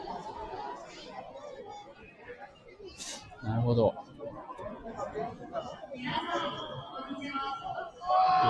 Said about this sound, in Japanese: 会場の声とかもこう聞こえてますかね、これね。聞こえてるのかな今ですね